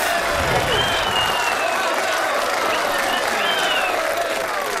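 A crowd applauding steadily, dense clapping at an even loudness throughout, with some cheering voices and whistle-like tones mixed into the roar.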